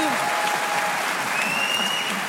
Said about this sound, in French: Euh, étant donné que pour beaucoup de liaisons, il est moins cher de prendre l'avion que le train, pour ou contre faire voler les trains par applaudissement qui est pour.